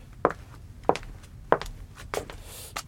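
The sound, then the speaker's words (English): Five crisp footsteps, performed as foley, land at an even walking pace, each a sharp hard-soled impact on a firm surface, with nothing else but faint room noise between them. “Um, of course, that will help me if I wear the right shoes, for example, high heels or sandals or army boots or like small shoes for a kid or.”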